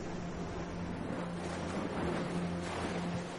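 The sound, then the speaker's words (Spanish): A continuous wash of sea waves below cliffs mixed with wind rumble, steady and fairly loud throughout, with a faint low engine-like hum running underneath. No one speaks. “Él abre los ojos y observa el oleaje mirando.”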